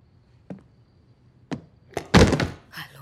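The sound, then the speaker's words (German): A few sharp wooden clicks, then a loud film clapperboard snap marking scene 17, take 3, with a brief clattering tail, followed by one more softer knock. No voices. “Szene 17, Take 3. Klappe. Action.”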